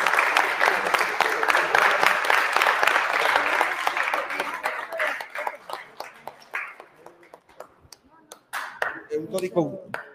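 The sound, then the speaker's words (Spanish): A crowd applauds warmly for a whole team, the dense clapping gradually thinning out into a few scattered claps, with a voice briefly audible near the end. “Un aplauso para todo el equipo de Perro Negro.”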